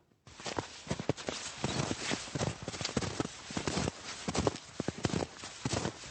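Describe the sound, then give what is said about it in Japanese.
Footsteps in traditional kanjiki snowshoes, round wooden hoops strung with rope, pressing into snow in Ōmachi, Japan, squeaking where the snow is firm at the start; a steady run of crunchy squeaks and thuds at an easy walking pace, with no voices. “歩き始めはちょっとあの固めの雪のところが開いたのでキュキュって音がするんですよ”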